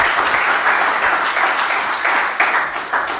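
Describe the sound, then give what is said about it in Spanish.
An audience claps in praise of God, a steady, dense wash of applause, loud and sustained for the whole stretch with no voices standing out. “Dele palmas al que vive.”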